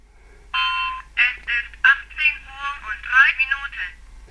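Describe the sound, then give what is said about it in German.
After a short beep, a small electronic voice from a very old model talking wristwatch, an assistive aid worn on the wrist that also works as an alarm clock, announces the time, thin and tinny yet clearly understandable, heard alone. “Diese Armbanduhr, ein Uraltmodell, spricht aber immer noch mit recht ordentlich und gut verständlicher Sprache.”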